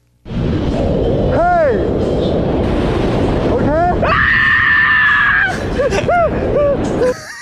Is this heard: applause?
no